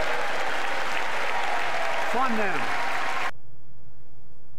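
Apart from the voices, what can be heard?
audience applause and cheering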